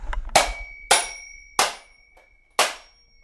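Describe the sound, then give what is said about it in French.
A small hammer strikes a mechanical alarm clock four times at uneven intervals to break it in two, each sharp metallic whack leaving a bright bell-like ring hanging in the air. No one speaks. “Grâce à ce petit marteau, nous voici avec deux temps.”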